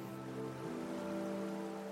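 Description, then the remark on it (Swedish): A swollen, overfilled forest creek, the Nautasbäcken in the Ultevis mountain old-growth forest nature reserve, 30 km west of Purjus in Norrbotten, Sweden, rushes in a steady, dense roar, its water noise continuous with no voices and no breaks, just the constant churn of fast-flowing water. “Det forsar högljutt från den överfyllda Nautasbäcken.”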